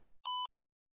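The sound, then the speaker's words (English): A single short electronic beep in a language lesson, cueing the listener to repeat a phrase: a clean steady tone lasting about a quarter second, sounding alone against silence with no talking. “Repeat after the beep.”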